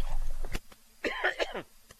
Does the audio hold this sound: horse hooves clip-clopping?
no